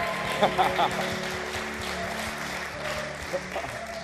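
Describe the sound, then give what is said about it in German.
An audience in Frankfurt applauds two young women preachers after their sermon: a dense wash of clapping with scattered cheers and whistles rising over it, sustained at a fairly even level throughout. “Komm, Frankfurt, komm, lass laut werden für die.”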